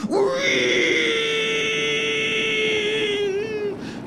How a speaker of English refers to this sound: A howling noise filled the room.